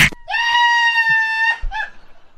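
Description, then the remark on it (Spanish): A person lets out a loud, sustained scream lasting over a second, harmonic and steady, then breaks off, followed by a brief shorter cry. “Ay, no me andes gritando.”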